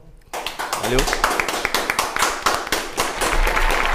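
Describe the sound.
A burst of applause begins abruptly, with many hands clapping in a dense, irregular patter that stays loud throughout, along with some overlapping cheering voices.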